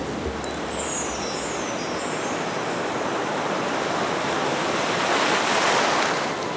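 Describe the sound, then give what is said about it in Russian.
A steady, full rush of churning water as something surfaces from underwater, with a brief high bubbly swirl at the start and no voices. “а теперь нам пора на поверхность. Всплываем.”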